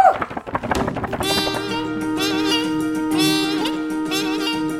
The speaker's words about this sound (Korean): 아이 뭐야 이거? 어디서 풍악 소리가 울리는데? 누가 잔치하나? 오늘 정대감네 환갑 잔치한데.